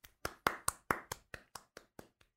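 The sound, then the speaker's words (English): Around eleven crisp hand claps at a steady, fairly quick pace, rising to their loudest early on and then gradually fading, with no voices alongside. “you were, you were you waiting for me to say clapping?”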